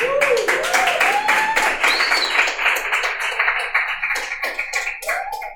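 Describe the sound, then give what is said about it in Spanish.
An audience claps steadily in a dense, continuous burst of applause for the team of Patio Content Live Studios, with voices cheering and calling out over it, fading somewhat toward the end. “Primero, y aquí voy, quiero que por favor la gente me siga con aplausos.”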